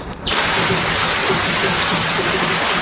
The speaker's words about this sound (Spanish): Al rato cae una fuerte tormenta.